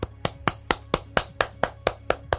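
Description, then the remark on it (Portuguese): A single person claps hands in a steady, even rhythm, about eleven sharp claps in quick succession, each crisp and bright, with a faint low hum underneath. “E você aplaude isso.”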